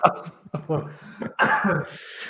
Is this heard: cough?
yes